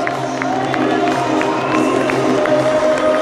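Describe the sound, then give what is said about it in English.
A loud stadium crowd at the end of a United football game roars steadily as Solskjaer leads the players to the United corner, many clapping in support, with sharp claps breaking through at a fairly regular pace and cheers rising throughout. The noise stays dense and sustained for the whole stretch. “Looking around me now, there's a lot of people clapping, there's a lot of people giving him some support, but there's also a lot of people holding their hands up to him.”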